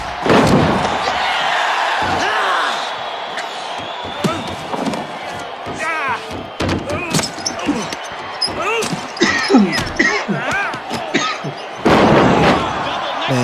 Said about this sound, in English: Boom, boom, boom. good sound. Little fucking face punches.